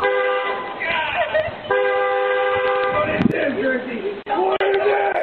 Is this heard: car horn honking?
yes